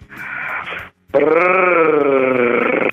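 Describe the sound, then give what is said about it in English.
A man's voice imitates a cat purr: a short, rough burst, a brief pause, then a long, loud, steady throaty drone with a slight bleating quality, with no other talk. “Uh, when you're ready, let's hear your sexiest cat purr.”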